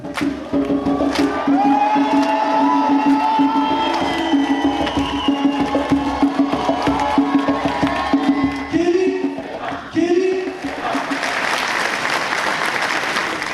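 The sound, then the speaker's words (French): An excited crowd in a reception hall in Bobigny, a Paris suburb, in March 2023, awaiting a man's entrance on stage, cheers and applauds continuously, a dense wash of clapping with voices shouting over it, sustained and loud throughout, swelling into a brighter burst of clapping near the end. “Une foule chauffée à blanc attend l'entrée sur scène d'un homme.”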